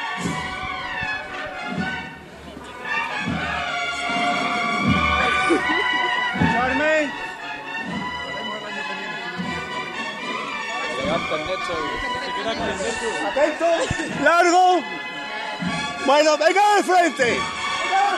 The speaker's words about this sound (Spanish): Y se va a ir para afuera otra vez. Entre el aplauso y los oles de la gente. Está de nuevo el señor de la sentencia en la calle de nuevo.